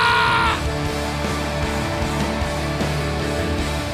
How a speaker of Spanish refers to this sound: ¿Dónde están los guerreros de esta casa? Denme un grito de guerra hoy.